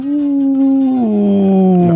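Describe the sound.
A single sustained howl, voiced by a person imitating a dog in a studio, holding a steady pitch before sliding lower near the end. It's loud, with no talking over it.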